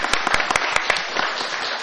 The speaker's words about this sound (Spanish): Muchas gracias a los dos. Un aplauso, por favor.